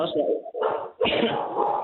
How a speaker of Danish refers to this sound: Så, nu der kommer der en hund. Ja, der er lige en hund her, der gerne vil være med.